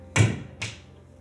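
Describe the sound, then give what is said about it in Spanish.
Two heavy, booming knocks land about half a second apart, the first louder than the second, solid blows struck on a metal door leading to the patio, heard from inside the house around 3 a.m., with nothing else around them. “Y y lo que estuvo muy culero fue que me despertaron dos putazos, así,”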